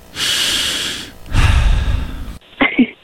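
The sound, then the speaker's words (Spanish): Loud, exaggerated heavy breathing: two long, rasping breaths in a row, followed by a brief voiced huff, as if someone is playfully overdoing their breathing. “Dice, perdona si te estoy llamando en este momento, pero me hacía falta escuchar de nuevo aunque sea un instante, tu respiración.”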